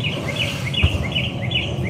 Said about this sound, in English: I just love all the birds chirping in the background. It's such a serene thing compared to like what he's saying now.